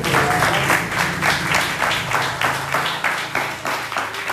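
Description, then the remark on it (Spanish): An audience applauds the Lord together in a steady, dense wash of many hands clapping, loud and sustained throughout, with a faint low hum beneath. “Gloria a Dios, ¡Dale aplauso al Señor.”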